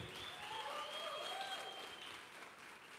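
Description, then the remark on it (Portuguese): An audience applauds steadily, a dense, even patter of many hands clapping at once, with a few faint voices or cheers rising above the sustained clapping throughout. “Aplaude mesmo, nós vamos subir.”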